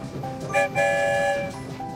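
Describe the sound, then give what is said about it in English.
The whistle of Santa's story train sounds in two blasts as it leaves the station, a brief toot followed by a longer sustained one, over the steady low rumble of the rolling train. “One whistle, we're on our way.”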